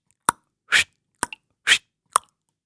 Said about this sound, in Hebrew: כעת לא היו לו מקלות, אז הוא יצר מקצב עם הלחמניה. העיף את הלחמניה באוויר ותפס. העיף ותפס לפי הקצב.